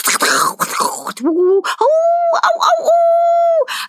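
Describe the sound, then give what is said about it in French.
A woman's voice imitates animal calls: a breathy, noisy burst, then a long rising howl that holds a steady wolf-like tone, with short owl-like hoot cries in between. It is fairly loud. “elle reproduit des sons d'animaux. C'est-à-dire qu'on peut entendre des hurlements de loups, des cris de chouettes”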